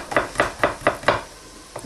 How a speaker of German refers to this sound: Und deswegen schneide ich den Knoblauch dann jetzt in Stücke, in dünne Scheiben.